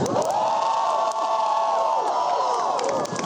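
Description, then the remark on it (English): A large crowd at an outdoor march in the cold cheers and shouts continuously, making noise for Black Lives Matter and LGBT Lives Matter, a dense wash of voices with high whoops and yells rising over a steady roar, loud throughout with no pauses. “To make some noise LGBT Lives Matter.”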